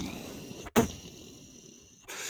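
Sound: explosion sound effect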